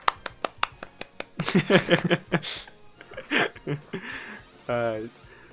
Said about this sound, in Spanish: El único aplauso y se oyen los grillos de fondo también ahí en edición le voy a meter un chingo de aplausos para que te calles.